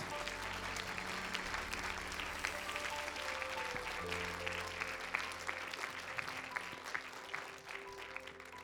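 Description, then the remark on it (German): Sustained applause from a crowd giving applause to Jesus, a steady dense patter of many hands clapping at a fairly even loudness throughout, with a low background hum underneath and no clear talking. “Lass uns mal Jesus und all diesen mutigen Leuten einen Applaus geben, diesem Rettergott.”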